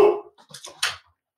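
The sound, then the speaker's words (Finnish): A dog barks a few times in short, sharp bursts in the background at moderate volume, with brief pauses between the yaps. “Teillä on, teillä on joku, tota noin, niin meillä tuli joku erotuomari sinne tota noin, niin haukkumaan taustalle.”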